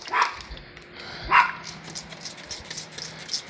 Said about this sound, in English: He's been doing this thing for the last week, week and a half, where it's just he, he's barking. Every time he goes outside, he's barking at nothing, and it's it doesn't matter the time of day.